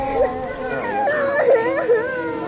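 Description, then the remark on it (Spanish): A child cries softly, a high, wavering whimper that sobs in short rising bursts and keeps going without a break at a moderate level. “No llores.”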